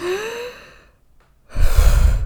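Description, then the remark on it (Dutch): A voice demonstrates an exaggerated, overly extreme deep breath: a rising, gasping inhale, a brief pause, then a heavy, noisy exhale rushing out. “En dat betekent niet dat je heel extreem ademhaalt. Dus dat je heel diep”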